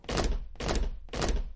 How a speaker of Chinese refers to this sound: 小魔怪讨厌这一切，他总是一个人待在自己的房间里，一会儿大喊大叫，一会儿跺脚。